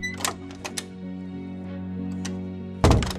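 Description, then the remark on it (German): The door of a second room opens with a few wooden clunks and knocks over a steady low humming drone, followed by a sudden louder burst near the end. “Ich wurde von Nebel begrüßt, als ich die Tür von Raum 2 öffnete.”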